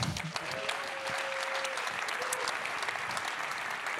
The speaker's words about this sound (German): dieser Applaus ist für mich stellvertretend für die vielen Menschen, die ihre Zeit und ihre Kraft neben ihrem Geld investieren in Prävention, was man nicht messen kann.